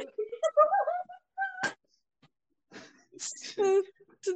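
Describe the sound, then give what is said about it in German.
A cat meows in a few drawn-out, wavering calls, first in a short cluster, then after a quiet pause a louder, higher, strained meow with some noisy rustling around it. “Ja, da hört man schon direkt Lakritze, Katze.”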